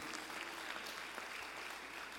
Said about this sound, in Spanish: Un aplauso. Aleluya.